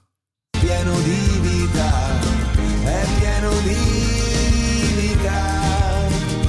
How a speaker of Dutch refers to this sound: Ik hoor hier straks zoiets geks. Wacht, wil hem eens wat harder? Oké. Ja, nou, ik hoor die zanger hier echt vragen: heb jij nog die wiet daar? Hè? Nou, even terugspoelen.